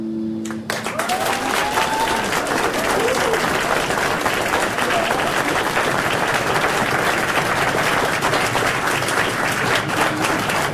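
Sustained applause from an audience, a dense, steady wash of many hands clapping at full loudness from the first second to the end, with a few faint tones peeking through at the very start.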